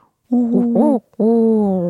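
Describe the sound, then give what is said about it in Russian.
A human voice imitates a common wood pigeon's hooting call: a wavering two-note coo, a brief pause, then a longer steady hoot, all fairly loud with no other sounds. “Если сизый голубь делает так, то вяхер делает”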